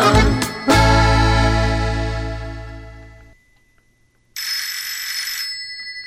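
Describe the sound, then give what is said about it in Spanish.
A loud, sustained low tone slowly fades out, then after a short silence a shrill telephone bell rings continuously for a couple of seconds, with no talking. “Ah, caray, ya se descompuso el teléfono.”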